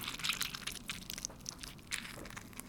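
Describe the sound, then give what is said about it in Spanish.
Squishy, crackling squelches from a soft, latex-like plastic ball being squeezed in a mesh, oozing out through its little holes, with irregular overlapping pops and creaks and no talking. “para que os hagáis una idea, es una bola eh, como de plástico suave, como de látex, incluso diría. Y está en una malla.”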